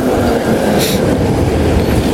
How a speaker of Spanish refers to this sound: aquí está el tranvía.